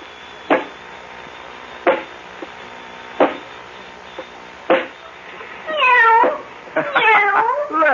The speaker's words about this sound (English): Okay, Robot 23. Go over to the kitten. Pick it up. And pet the kitty. Nice kitty.